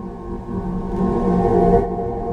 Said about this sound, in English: This is Voyager recorded this. Oh, this is the this is a recording of the of the sounds of Jupiter by uh, by Voyager. It's a complex interaction of charged electromagnetic mm-hmm. particles from the solar wind planetary magnetosphere combined create